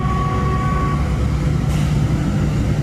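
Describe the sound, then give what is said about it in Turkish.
Dense, steady traffic on the D100 highway's Bolu Mountain crossing in Turkey, with Ankara-bound vehicles diverted from the TEM motorway due to tunnel maintenance: a continuous low engine rumble from many vehicles, loud, with a brief whining tone early on and no voices. “Tem Otoyolu'nun Ankara yönüne seyreden tüm araçlar Kaynaşlı gişelerinden D100 Karayolu Bolu Dağı geçişine yönlendirildi ve bu yüzden trafik yoğunluğu yaşandı.”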